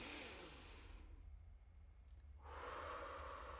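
A deep, airy breath drawn in, a brief held pause, then another long breathy rush of air, done as a deep-breathing exercise; no talking.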